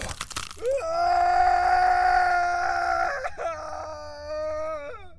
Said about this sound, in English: Several bones crack at the same time, and suddenly my lungs and throat are released. I scream, and I scream through my lunatic grin before the trees gray out into unconsciousness.